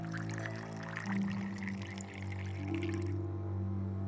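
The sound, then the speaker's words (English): Wine is poured steadily into a glass, a continuous gurgling stream whose pitch rises as the glass fills over about four seconds, with no one speaking. “Felix placed a few slices on a plate and handed it to Rasputin, and then poured a drink.”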